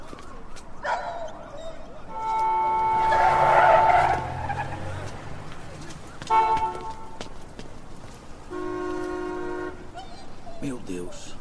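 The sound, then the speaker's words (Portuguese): A blue Toyota's tires screech in a long, loud skid, followed by a sudden thud-like burst as it hits the Whartons' dog, which gives sharp, pained yelps and whimpers, over a noisy outdoor background. “Você viu o carro? Era um Toyota azul, só isso que eu vi.”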